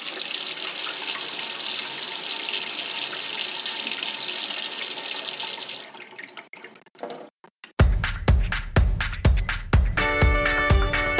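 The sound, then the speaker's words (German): A faucet runs in a steady hiss of water, then sputters and cuts off in bursts, after which a louder rhythmic sound with tonal notes takes over. No one speaks. “Bei mir zwei dürfen die Fachleute vom Seewasserwerk in Frasnach die Frage stellen: Wie kommt's Wasser vom Bodensee zu uns nach Haus und was hat's alles durchgemacht, bis es bei uns aus dem Wasserhahn läuft?”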